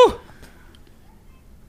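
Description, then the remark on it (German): A single sharp sneeze bursts out right at the start, fairly loud, then fades into quiet with no talking. “Ah, oh, Gesundheit.”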